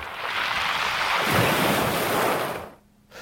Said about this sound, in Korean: 보길도에 가면 그리고 경남 거제도에 가면 이 몽돌해변이라는 곳이 있습니다. 이 소리는 그 돌들이 구르는 소리입니다.